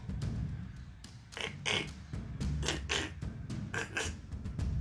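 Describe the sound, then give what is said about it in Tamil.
A large frog croaks repeatedly in short, raspy bursts, often in quick pairs, fairly loud over a low background rumble, with no one talking. “திரும்பி பார்த்தா நல்ல பெரிய தவளை அப்படின்னு அவனை பார்த்து பயத்தில் இன்னும் கொஞ்சம் கத்த ஆரம்பிச்சிச்சு”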